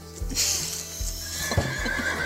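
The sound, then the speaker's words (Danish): A horse whinnies in a long, quavering, high-pitched call, fairly loud, with a few soft hoof thuds underneath. No one speaks. “så når ikke jeg er på arbejde, så bruger jeg meget af min tid sammen med hesten i hvert fald.”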